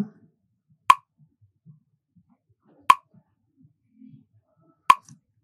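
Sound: metronome ticking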